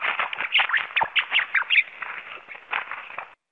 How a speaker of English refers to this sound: Rats have the ability to laugh when tickled, and according to a National Geographic study, it demonstrated that rats respond positively to tickling. Here's a sample. So here's the sound a rat makes if you tickle its back.